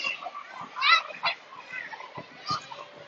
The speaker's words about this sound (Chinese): 中午回到家附近的小学，看到好多小朋友都在操场上面运动篮球、跑步。现在大家听到的是，呃，东京的某一间小学的声音。